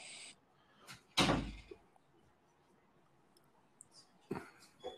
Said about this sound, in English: I you probably heard the you probably heard you may have heard the doors. I don't know if you heard the door